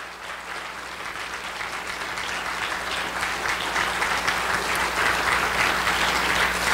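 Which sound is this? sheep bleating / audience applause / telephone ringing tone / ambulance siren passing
audience applause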